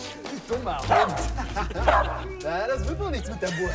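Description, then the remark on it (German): A small guard dog in a courtyard barks and yips excitedly as it is teased with a sausage and snaps at it, with sharp bursts about once a second over a busy background that includes human voices. “Sie hielten ihm eine Wurst vor die Nase und zogen sich jedes Mal weg, wenn der Hund nach ihr schnappte.”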